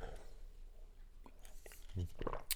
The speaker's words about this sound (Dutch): Ik ga eerst even een slokje nemen.